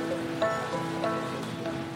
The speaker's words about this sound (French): Je suis en terrasse de café, j'ai pris un chocolat chaud et il pleut. On est place Colette, c'est le vieux Paris à côté de la comédie française.